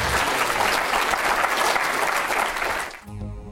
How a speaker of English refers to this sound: Okay, well, thank you very much. Let's give these guys a nice round of applause. It was a great presentation.